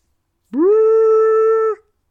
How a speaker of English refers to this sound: What is that I hear? Is that a boat docking? I think it is,